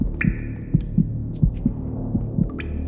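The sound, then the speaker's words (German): A pounding heartbeat thumps in a steady, fast double rhythm, low and heavy over a constant deep hum, with a few faint higher tones drifting in. No one speaks. “Sein Herz schlug wie wild in seiner Brust.”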